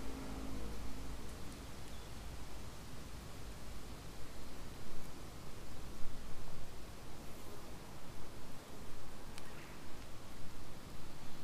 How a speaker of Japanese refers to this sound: まあ、波形は今はっきり見えるので今結構音波形でっかく入ってるけどこれは風の音かなちょっとこれまた黙ってみます